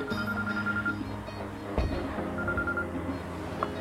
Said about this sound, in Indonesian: Siapa nih telepon?